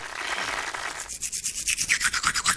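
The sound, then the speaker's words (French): A toothbrush scrubs teeth in quick, steady back-and-forth strokes, producing a rhythmic, hissy bristle scraping that starts as a continuous rub and then settles into about a dozen distinct pulses. No voices. “Brossage de dents.”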